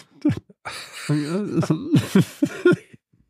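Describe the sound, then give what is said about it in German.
Laughter breaks into coughing, a run of voiced, hiccupping chuckles mixed with sharp, breathy coughs, fairly loud, lasting about three seconds before trailing off. “Äh, lachen und gleichzeitig husten dann.”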